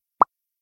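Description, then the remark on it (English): A single short, hollow pop made by popping the lips, crisp, over almost instantly and followed by silence. “It was just me popping my lips.”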